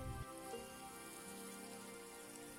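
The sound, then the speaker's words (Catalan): Soft, steady patter of water falling onto plants' leaves and soil as they are watered, a continuous rain-like spray heard fairly quietly, with a brief low thump at the very start and faint tonal hum underneath. “Quan reguis les plantes, experimenta l'amor. a mesura que va caient l'aigua a sobre de les plantes.”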